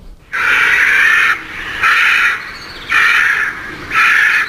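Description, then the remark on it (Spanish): Four harsh, raspy crow caws, each about a second long, repeating in a steady rhythm with short pauses between. The calls are loud and grating, with no talking over them. “me acuerdo de este personaje del que vamos a hablar, porque para mí es todo un personaje, es un símbolo más que un animal y más que un, y más que un ave.”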